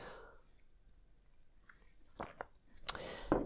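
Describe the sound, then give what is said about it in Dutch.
Quiet sipping of hot tea: a few soft slurping and swallowing sounds with a sharp little click partway through, and no one talking. “Ik neem even een slokje thee.”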